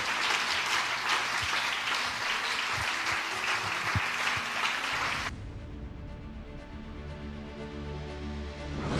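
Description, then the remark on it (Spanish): A church audience at a morning service breaks into sustained, dense applause for Jesus for about five seconds, a steady roar of many hands clapping, before it cuts off abruptly to a quieter, low murmuring backdrop. “¿Alguien puede rendir un aplauso a Jesús en esta mañana?”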